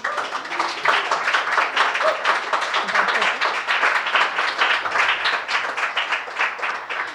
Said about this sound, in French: Donnez donc une main d'applaudissement.